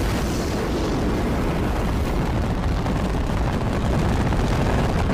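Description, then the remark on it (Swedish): A space rocket launch of 16 million horsepower with a continuous, thunderous engine roar, dense low rumble and crackling, steady and loud across the whole stretch with no voices. “Och nu ska vi lyssna på, eh, till med, vi ska lyssna på 16 miljoner hästkrafter här, eh, rymdraket.”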